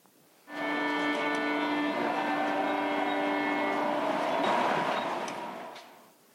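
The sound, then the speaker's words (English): A subway train rushes through a Washington subway station, a loud, steady roar with shrill metallic squealing tones layered on top, holding for several seconds before slowly fading away. No one speaks. “They got a, a famous classical violinist called Joshua Bell and they got him to busk and pose as a busker in this Washington subway.”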